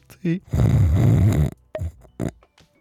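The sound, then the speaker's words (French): A voice imitates snoring: a long, loud, rumbling snore lasting about a second, framed by short vocal grunts and breathy bursts. “Et puis la personne entend tes ronflements.”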